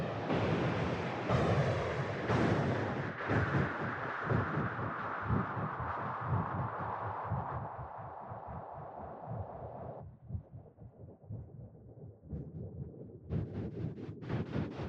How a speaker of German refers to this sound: Das klingt auch schon interessant, oder? Ja, aber es ist immer irgendwie halt Windgeräusch, irgendwie Sturm auf Neptun.